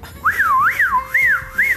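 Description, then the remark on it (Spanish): A wavering whistle that swoops up and down in pitch over and over, like a bird sputtering out of air, loud and alone with no talking. “Ah, suena, así como un pájaro, pájaro desinflado.”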